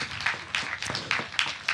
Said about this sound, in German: Applaus kurz dafür.